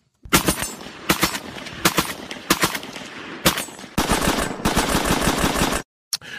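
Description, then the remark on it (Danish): A German Sturmgewehr 44 assault rifle in 7.92 calibre fires several loud single shots spaced about a second apart, then a sustained rapid automatic burst lasting nearly two seconds, with a final short burst after a brief pause. “Vi skal lige øh, høre det affyret her.”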